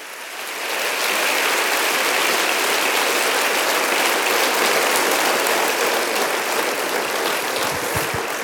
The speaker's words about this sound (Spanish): ¿Cuánto lo creen que así va a ser? Vamos, denle un aplauso grande al Señor.